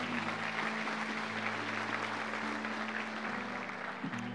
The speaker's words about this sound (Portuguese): Dê a sua melhor salva de palmas ao nosso Pai aí.